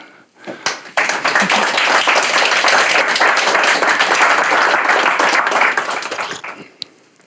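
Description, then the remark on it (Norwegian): A room full of people claps steadily for several seconds for Norwegian writer Tone Hødnebø, a dense wash of many hands that swells quickly, holds, then thins out and fades near the end. “Eh, I en applaus til Tone Hødnebø.”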